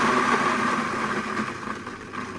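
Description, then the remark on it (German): A steady mechanical grinding drone from a grain mill in a shop grinding wheat into flour, with a dense whirring hum and gritty texture that holds at a fairly even loudness before easing slightly toward the end. “Obacht nur, ob im Mixer daheim oder jetzt bei uns hier im Laden.”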